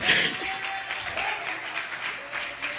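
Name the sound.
audience applauding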